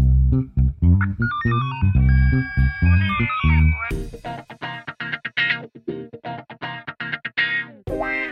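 signal or alarm, phone call ringing tone

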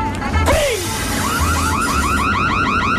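signal or alarm, fire alarm ringing

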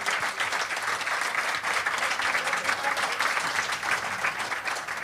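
crowd, audience applause

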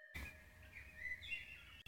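bird, birds singing outdoors

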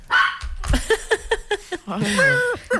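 animal, dog barking

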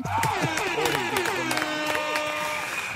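sound effect, applause

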